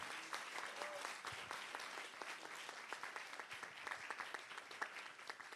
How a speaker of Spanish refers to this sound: Alguien le da un aplauso a ese Dios bueno, misericordioso.